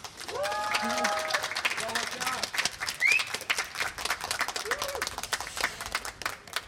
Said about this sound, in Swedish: river huset här, river ner applåderna.